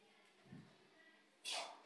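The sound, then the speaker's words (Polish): A single sneeze: a soft, low intake of breath followed a moment later by a sudden, loud, hissing burst that fades quickly. No one speaks. “na zdrowie.”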